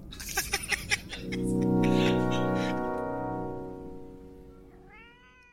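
A few quick knocks lead into a long, drawn-out cat meow that holds steady for several seconds and fades, then a brief high chirping call closes it out. No one speaks.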